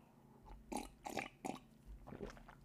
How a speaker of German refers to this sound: muss man jetzt ein bisschen schlürfen, damit ihr hört, dass ich ja wirklich trinke. Ne? Dass jetzt hier keine peinliche Pause ähm, eintritt.